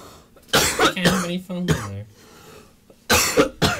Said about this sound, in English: No, I'm coughing my lungs out.